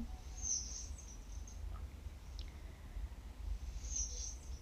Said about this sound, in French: Les oiseaux à côté de moi, eux, ont l'air de vibrer.